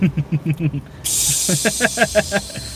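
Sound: shushing hiss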